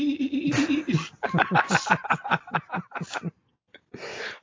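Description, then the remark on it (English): A warbling, dolphin-like sci-fi sound effect for a mind control device: a sustained tone gives way to a rapid, rhythmic series of chattering chirps that fade out, followed by a short hiss. It is moderately loud. “love the sound effect. Hmm. It, it, it, reminded me of the dolphin speak in Hudson Hawk.”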